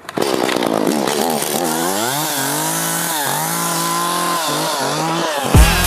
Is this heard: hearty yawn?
no